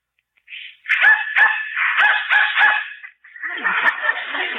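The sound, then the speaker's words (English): A dog barks excitedly in a quick run of five or six sharp barks, then breaks into a longer stretch of high, strained yelping, reacting to a dog whistle being blown. No one speaks. “dog heard it, but I didn't.”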